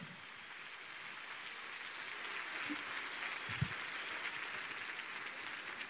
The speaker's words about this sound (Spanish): Y permítanme que le demos un aplauso a los partidos políticos, porque ellos, ellos hicieron posible esto.